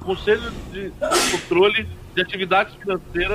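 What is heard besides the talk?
sneeze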